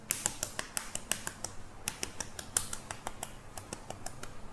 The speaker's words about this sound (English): So I'm just gonna spend the next few minutes peeling these eggs